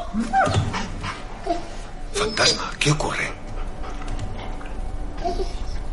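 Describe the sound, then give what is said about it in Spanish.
A wolf named Fantasma whines and yips, scrabbling and thumping as it jumps against a door at night in a few heavy bursts, while a man briefly speaks over the noise. “De noche, Fantasma salta contra una puerta.”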